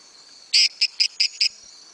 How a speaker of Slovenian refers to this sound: Um, no, potem mu pa odgovori en s tremi kliki, ne? in ta isti žabec odgovori s štirimi, in to je to.